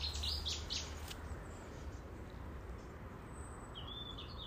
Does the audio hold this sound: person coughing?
no